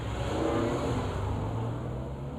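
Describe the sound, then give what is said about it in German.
A luxury car engine rumbles loudly, a deep steady drone with a slight swell as it revs, running the whole time with no voices. “Apropos Nobelkarossen.”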